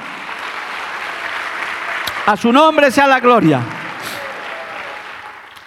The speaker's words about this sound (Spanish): Dale un aplauso al Señor, hermano.